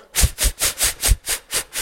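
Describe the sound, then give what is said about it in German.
Eight quick, forceful breaths blown out downward through pursed lips in bursts during a breathing exercise, in a steady rhythm, each a loud airy hiss in rapid succession, with no talking. “Halte die Luft an und jetzt mit den Handflächen massiere deinen Brustkorb vorne und zur Seite, klopfe deinen Brustkorb ab, dann schürze deine Lippen, atme stoßweise nach unten aus,”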